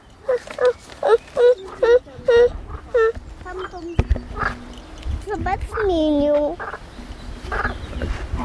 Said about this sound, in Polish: Teraz wiesz, jak żaba dźwięk wydaje, tak? Co robi? Lech, lech, lech. Rek, Zobacz, Lech. jak policzki jej się wydymają, jak balony z gumy do rzucia. Dzięki temu dźwięk jest głośniejszy.